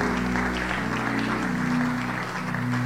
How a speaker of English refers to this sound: Please keep clapping as they come.